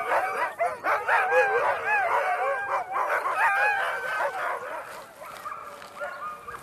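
A pack of sled dogs lying in straw at a race checkpoint, barking and howling together, a dense, continuous chorus of overlapping yips and rising, wavering howls that stays loud throughout, with no speech.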